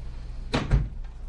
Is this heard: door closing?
yes